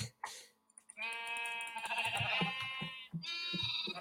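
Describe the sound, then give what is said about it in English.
Minecraft Rainbow Sheep bleating, a sheep that drops rainbow wool when sheared: a long, wavering bleat followed by a shorter second one after a brief gap, loud, with no talking. “So it's just a normal sheep, except it drops rainbow wool when you shear it.”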